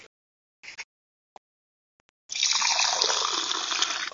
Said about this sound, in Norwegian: Nå skal vi sette mikrofonen litt nærmere, så vi hører lyden av første skjenk.